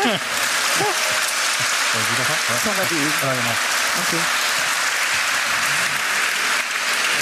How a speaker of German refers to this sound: Der Applaus ist quasi der Einsatz für das Publikum, denn wir würden jetzt gerne an Sie übergeben